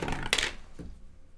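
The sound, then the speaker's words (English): A short, bright clatter of dice tumbling and clicking through a small dice tower for a stealth check, with a softer rattle trailing off just after, with no talking. “this is a little dice tower.”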